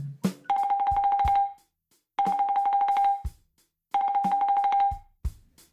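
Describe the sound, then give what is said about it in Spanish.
An alarm rings in three loud electronic bursts, each a rapidly trilling tone lasting about a second with short pauses between, accompanied by a few faint clicks; it is a reminder alarm for the time to take a contraceptive pill. “Oye, oye, oye, pero que vamos a empezar el podcast apaga esa alarma, por favor.”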